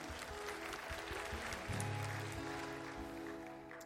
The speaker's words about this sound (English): If one person claps, we all have to, my friend.